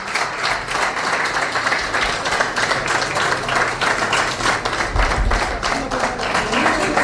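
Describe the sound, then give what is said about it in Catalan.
Sustained applause from a crowd in the plenary hall of the Vilassar de Mar council as the new mayor is invested, dense overlapping clapping at steady loudness throughout, with faint murmuring voices beneath. “emoció, aplaudiments, segueix la sala de plens.”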